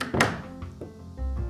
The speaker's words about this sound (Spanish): que nadie escuche que cerré la puerta.